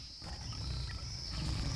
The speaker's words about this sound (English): I hear a lion in the background. Do you hear it too?